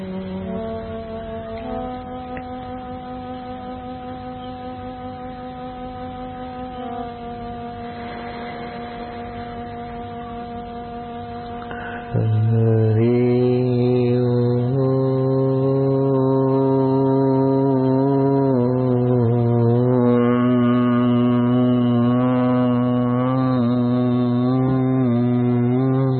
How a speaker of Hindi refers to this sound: होठ बंद करके फिर ओंकार का गुंजन ऐसा समझिए करिए बाद में